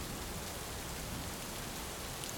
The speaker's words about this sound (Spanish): La lluvia incesante golpea el cristal impidiendo la visibilidad.